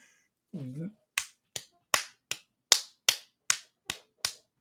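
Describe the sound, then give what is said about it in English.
A person slaps their own forehead with a hand about ten times in a steady, brisk rhythm, each smack sharp, right after a brief groaning vocal sound. “That's me hitting my forehead because they do play the second to last weekend.”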